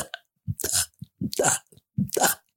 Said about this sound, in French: Donc, ça donnerait, si je, si je suis ton euh, ton descriptif euh, sans euh, l'image bien sûr, mais juste avec le son, je vais mettre de l'air dans ma bouche, de gober. J'avais tendance à dire à mon patient de gober l'air.